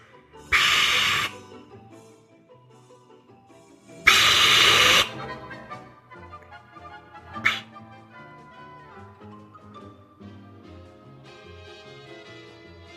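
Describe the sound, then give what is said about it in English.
A voice imitates a moviegoer's heavy breathing during a movie: two loud, raspy breaths about three seconds apart, with a faint tonal hum lingering underneath. “it would have been no more breathing in that movie. You really just star, acted out.”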